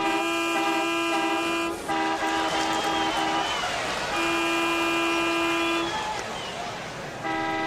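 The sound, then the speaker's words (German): Car horns honk in long, loud, sustained blasts, one after another with brief gaps, as cars are forced to stop at intersections, over a busy traffic rumble and faint background voices. “An den Kreuzungen legen sich die langen Spaghettis quer über die Straße, sodass die Autos halten müssen, bis alle Nudeln die Straße überquert haben.”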